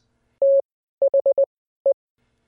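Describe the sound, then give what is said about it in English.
Morse code beeps in a steady mid-pitched tone: one long dash, a quick run of four short dots, then a pause and a single dot, with no voices. “Imagine you're hearing a series of dots and dashes.”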